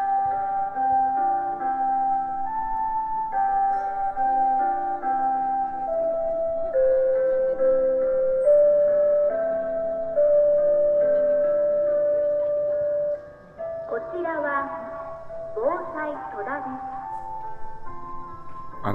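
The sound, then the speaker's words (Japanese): A municipal evening chime in Toda, Saitama Prefecture, Japan, plays a slow, sustained melody over outdoor loudspeakers. Near the end, an amplified voice makes a spoken announcement calling on people to hurry home while the tune carries on. “そうね呼びかけるパターンだ、ね、早くお家に帰りましょう”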